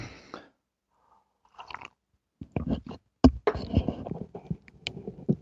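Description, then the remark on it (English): Someone drinking a glass of water: a run of wet gulps, swallows and small mouth clicks in an irregular rhythm after a brief quiet gap, with no talking. “And, uh, excuse me, I'm going to get a drink of water here.”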